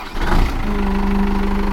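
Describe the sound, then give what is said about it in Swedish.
A tractor's diesel engine turns over with a brief rough burst, then settles into a steady, throbbing idle with a low rhythmic chug, fairly loud, with no talking. “Ja, jag startar. Ja, David hoppar in i traktorn nu”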